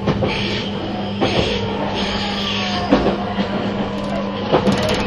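A 651 series express train, external-fan type, running as the Super Hitachi No. 66 from Sendai to Ueno, runs with a steady low rumble and a constant low hum, broken by periodic sharp clacks and thumps from the wheels passing over rail joints.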